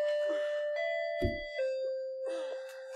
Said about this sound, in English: Oop, that's our doorbell. That's our doorbell. I'll go get it.